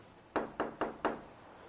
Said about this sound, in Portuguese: A menina chega atrasada, e ela bate na porta.